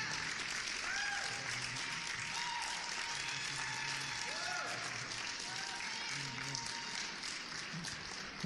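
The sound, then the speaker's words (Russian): A standing ovation welcoming a couple: loud, dense applause from a large crowd, steady and unbroken for the full length, with occasional rising whoops and cheers mixed into the clapping. “Да, они заслуживают стоячей овации.”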